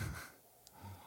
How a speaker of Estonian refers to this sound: ma võtan ühe lonksu. sest et äh, ma võtan ka ühe lonksu.